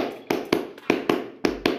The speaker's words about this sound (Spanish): Los picos son los niveles más altos. Si por ejemplo yo estoy grabando unas palmas